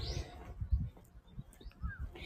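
Small birds chirp a few times in short, high tweets, fairly faint, over a low outdoor rumble with soft thumps, like wind and footsteps, in a park during a walk on a cold day.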